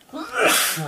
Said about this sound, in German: Gesundheit.